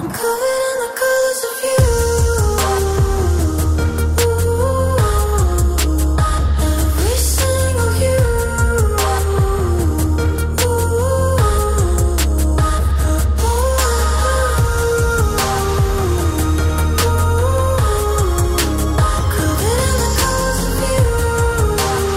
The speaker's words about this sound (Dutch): En we luisteren, we luisteren even naar eh, een ja, nummer dat op de soundtrack staat